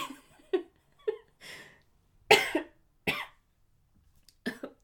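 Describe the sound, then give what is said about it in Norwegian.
A loud, dramatic sniffle stands out among a handful of short, breathy bursts, with a few soft laugh-like exhales and no talking. “Det var en litt dramatisk snufs der på slutten.”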